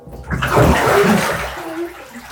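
Water sloshes and splashes in a bathtub for a couple of seconds, a fairly loud burst of movement that gradually settles, with no voices.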